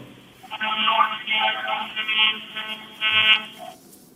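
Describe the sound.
A voice imitates a train with a loud, buzzy, horn-like drone that wavers in pitch for about three seconds, briefly dipping before a final burst.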